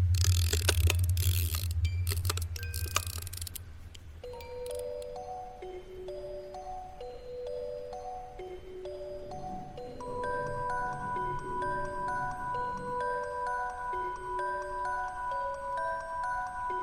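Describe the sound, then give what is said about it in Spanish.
A small metal music box set on a metal pipe is cranked: a few seconds of clattering, ratcheting handling noise, then a steady, sad plinking melody of bright, bell-like single notes resonating in the pipe over a soft mechanical whir. No one speaks. “Entonces, sacó la cajita y la puso sobre una de las tuberías. ¡Escucha! dijo entusiasmado y le dio vueltas a la manivela.”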